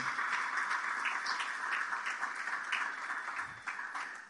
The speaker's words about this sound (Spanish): Si le vas a dar un aplauso, dáselo a él con fuerza, por favor.